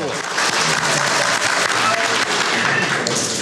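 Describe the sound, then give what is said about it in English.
Sustained loud applause from an audience standing to clap for a young woman, a dense continuous wash of many hands clapping for several seconds with steady intensity throughout. “Clap yes. for these yes. are our babies.”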